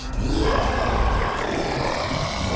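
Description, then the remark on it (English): A deep, growling monstrous roar rumbles continuously for a couple of seconds, loud and thick with low-end rasp, like a large beast bellowing inside a saloon. “Beastly roar from inside.”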